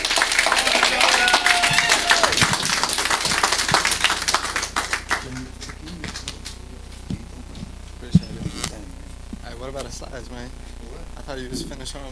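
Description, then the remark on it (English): An audience breaks into loud, dense applause for about five seconds for a man being introduced and called up, then it thins out to scattered claps and murmuring voices. “Give him a good hand of applause.”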